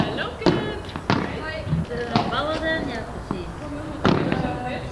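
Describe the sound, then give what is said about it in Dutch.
A padel ball slams against a court fence again and again, five sharp, irregular, very loud cracks, with people's voices chattering in the background throughout. “Als daar dan die bal op vliegt, ja, dan hoort je die, die klap op dat hek.”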